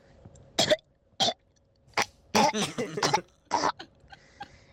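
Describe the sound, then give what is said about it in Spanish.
A person imitates an orca call with a series of short, breathy, raspy vocal bursts, some with a squeaky tonal edge, spaced irregularly and fairly close. “ese es el ese es el sonido de la orca.”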